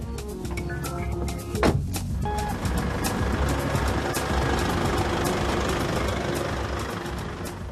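A heavy truck engine idles with a steady low rumble amid busy street traffic, joined by faint beeping tones, continuous, with no one speaking.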